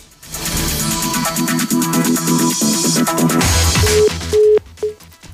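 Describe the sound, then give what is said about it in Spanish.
A busy signal on a telephone line: three loud, steady beeps in an even on-off rhythm, coming after a few seconds of dense, buzzing, rhythmic line noise. “No, bueno, ahora sí que tenemos una fiesta con los teléfonos.”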